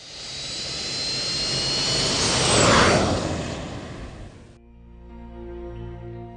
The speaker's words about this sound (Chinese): 跑道上，这架印着 “Zero G” 字样的飞机缓缓地转弯、加速、起飞、爬升。